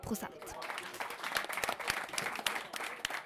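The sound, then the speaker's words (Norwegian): A crowd gives mild applause with light cheering over a small rise in an election result, a steady patter of many hands clapping at moderate volume, with voices mixed in, continuing evenly for a few seconds. “Likevel var det en mild eh, jubel over eh, den lille oppgangen.”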